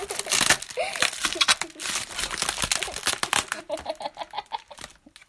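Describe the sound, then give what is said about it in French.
Loud, continuous crinkling and tearing open of parcel packaging, a bag from Philibert, with dense bursts of crackling rustle, then lighter intermittent crinkles and a faint background voice toward the end. “J'arrache le. Allez, fais un peu du bruit là.”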